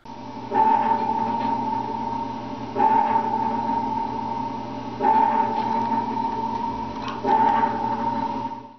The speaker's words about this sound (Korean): 여러분 혹시 잠수함 영화 많이 보셨죠? 잠수함 영화 안 보셨어요? 뭐 크림슨 타이드, 뭐 다스부트, U571. 굉장 보면 핑핑핑 소리 들리죠. 그 액티브 소나예요. 액티브 소나.